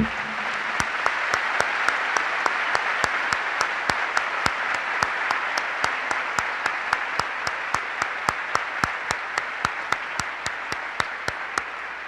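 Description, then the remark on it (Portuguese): An audience applauds for about twelve seconds, a dense, steady wash of clapping from many hands, with a few sharp claps standing out in an even rhythm throughout. No one speaks. “Vamos aplaudir esse espírito que sacerdócio.”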